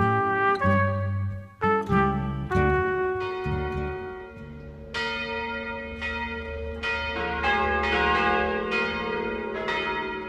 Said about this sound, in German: Kirchenglocken.